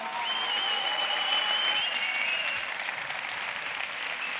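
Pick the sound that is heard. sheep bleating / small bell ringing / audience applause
audience applause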